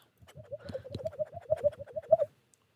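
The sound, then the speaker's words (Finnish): A person imitates a pigeon's cooing, a continuous run of throaty, warbling coos lasting about two seconds and growing a little louder toward the end, with no other sounds around it. “Tämä on mun puluimitaatio.”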